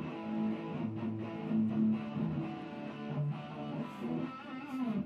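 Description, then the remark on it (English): A distorted electric guitar plays a thick, sustained run of chords and notes for about five seconds, loud and steady, with a gritty, saturated tone and no voices. “distortion is the rock sound. Let's turn that on, and it gives you this, this very full, rich, baldy, chunky.”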